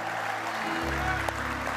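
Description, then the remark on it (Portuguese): A church audience applauds God in a steady, dense wash of clapping that fills the whole clip, with a low sustained musical tone entering underneath partway through. “Vamos aplaudir aquele que é fiel, aquele que é fiel.”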